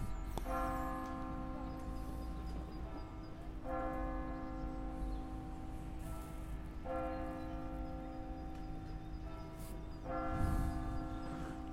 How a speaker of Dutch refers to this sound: de kerkklokken luiden.